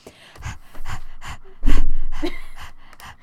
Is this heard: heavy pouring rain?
no